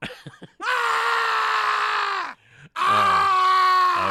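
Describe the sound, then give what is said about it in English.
A horror sound effect of screaming and groaning: a few short grunts, then two long, loud, strained howls separated by a brief gasping pause, with no talking. “the Scary Sound CD”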